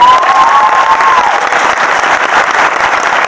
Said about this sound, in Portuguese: salva de palmas pro meu sobrinho!